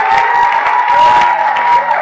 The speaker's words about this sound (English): Let's give them a round of applause as they go and sit down.